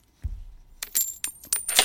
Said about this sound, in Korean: 네, 동전 소리입니다. 동전 소리.